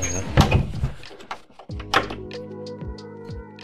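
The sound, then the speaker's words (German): A wooden door keeps blowing open in the wind, knocking and banging several times at irregular intervals, with dull thuds and a rattling latch, some faint voices mixed in underneath. “Dass die Jetzt fliegt die Tür immer auf im Wind.”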